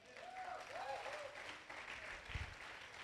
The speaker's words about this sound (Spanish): Que alguien diga amén y aplauda al Señor.